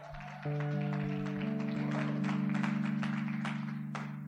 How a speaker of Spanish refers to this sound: porque damos un aplauso fuerte.